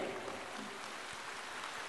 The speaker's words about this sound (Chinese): 热烈的掌声，感恩卢军红台长的精彩开示。